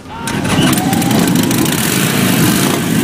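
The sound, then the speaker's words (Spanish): A loud Harley-Davidson motorcycle engine rumbles steadily with a deep, throaty roar, continuous for a few seconds after a quick rise at the start. “Se llama el Experience Tour de Harley Davidson, es una cita imprescindible para los amantes de las motos de dos ruedas y con ese rugir de sus motores”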